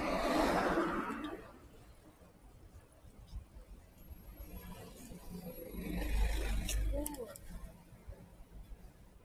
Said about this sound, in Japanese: まあなんか車がちょっと邪魔、渋滞している。